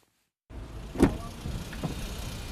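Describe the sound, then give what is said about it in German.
A car passes at the Großer Markt square in Saloy at 11 a.m., where cars are lined up and hardly a parking space is free, against a steady low rumble of street traffic, with a brief swell around one second and another fainter vehicle sound shortly after. “11 Uhr am Großen Markt in Saloy. Hier reiht sich Auto an Auto.”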